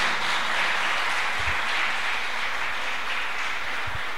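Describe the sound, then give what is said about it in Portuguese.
A church audience applauds to the Lord steadily, many hands clapping together in a dense, continuous wash of sound that holds at an even, loud level for about four seconds with no voices standing out. “Pode aplaudir ao Senhor por isso.”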